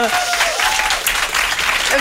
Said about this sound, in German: Hut ab und dafür noch einen krassen Applaus, wie gut du Deutsch sprichst.